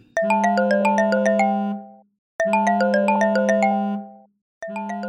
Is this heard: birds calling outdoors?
no